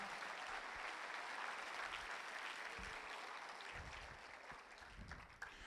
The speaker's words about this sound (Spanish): Vamos, alguien, darle un aplauso fuerte a nuestro Señor.